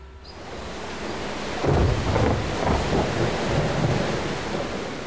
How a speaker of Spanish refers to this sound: Cierto día empezó una tormenta muy fuerte que estremecía la región.